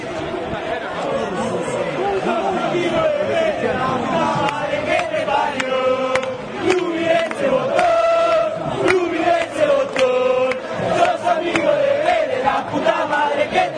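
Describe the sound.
A large stadium crowd of Argentinos Juniors football fans chants and sings together in loud, sustained unison, with rising and falling melodic lines over a constant roar of voices filling the space.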